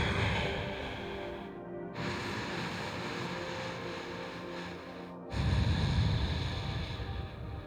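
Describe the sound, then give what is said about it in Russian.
Slow, deep breathing during a stretching exercise: long airy inhales and exhales in a steady cycle, with no talking. “Потянись и дыши вдох и выдох.”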